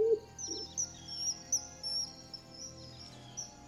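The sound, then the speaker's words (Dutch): A small blue bird calls in flight with a scatter of short, high, thin chirps at an irregular rhythm over a soft background hiss. No one speaks. “Eh, excuseer, hebben jullie toevallig geen kleine blauwe vogel gezien? Zo eentje zoals ik?”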